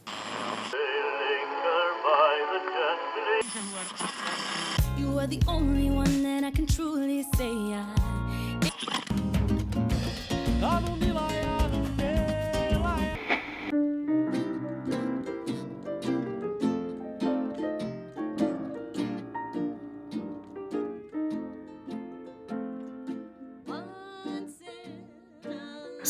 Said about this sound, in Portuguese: Roda a vinheta? Roda a vinheta.